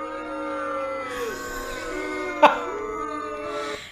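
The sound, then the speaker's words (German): A voice lets out a long, drawn-out booing sound, a steady low jeering tone that wavers slightly in pitch and holds for several seconds, with a brief click near the middle. “Kannst du bitte nochmal das Bu-Geräusch gleich machen?”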